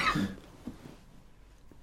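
A single sharp cough bursts out at the start, followed by quiet with a couple of faint rustles and a brief click at the very end.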